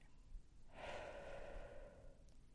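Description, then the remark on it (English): A single long, airy breath, drawn in deeply and let out slowly, fairly soft, with no talking around it. “Take a deep breath with me in and take a deep breath in the out.”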